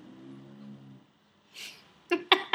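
A female dog snores softly: a low, droning rumble of an inhale, a breathy exhale, then three quick snuffling snorts in a row, with no one speaking.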